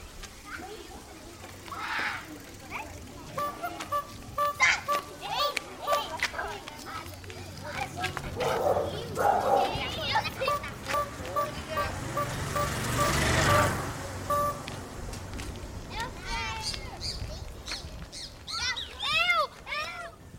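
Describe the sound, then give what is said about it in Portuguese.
Busy neighborhood ambience in the Carananzinho neighborhood of Salinópolis (Salinas), in the Atlantic part of the Brazilian Amazon: overlapping voices and children at play, intermittent dog barks, and bright chirping bursts toward the end, all layered over a steady low rumble of street noise. “você acabou de escutar um pouquinho dos sons muito comuns no bairro do Carananzinho, localizado no município de Salinópolis.”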